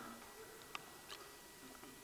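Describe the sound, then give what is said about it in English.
A plastic water bottle crackles faintly as it is squeezed during a sermon, with a couple of short, sharp crinkling snaps spaced apart over quiet background noise and no voices. “It crackles when you squeeze it.”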